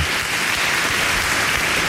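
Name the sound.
applause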